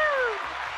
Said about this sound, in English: Big applause Woo! for Nikki Novak as always